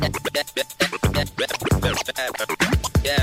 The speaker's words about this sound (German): Da zieht man die laufende Platte zurück und lässt sie wieder los und kann so bestimmte Passagen wiederholen oder mit den dabei entstehenden Scratch-Geräuschen richtig was spielen.